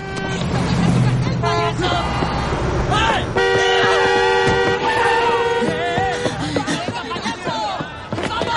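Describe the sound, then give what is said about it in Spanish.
Dense traffic on a busy avenue with several car horns honking in overlapping bursts, including a long sustained blast, over a constant rumble of engines and faint crowd murmur. “Cruzan entre el intenso tráfico de la avenida.”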